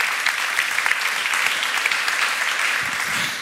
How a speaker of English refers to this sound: So, big round of applause for our third speaker.